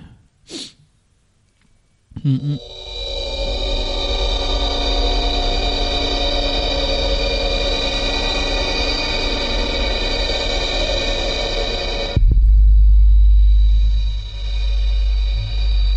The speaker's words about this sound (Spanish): Pues nada, pues este sonido así como espacial, con ese latido enorme que ha salido el título en la pantalla Stranded.